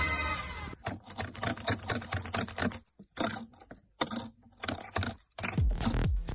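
A printer runs with rapid mechanical clattering and ticking in bursts, broken by brief pauses, ending in a rising whir; no one speaks.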